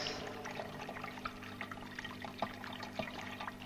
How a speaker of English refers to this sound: and the beautiful, gentle trickle of water in the background.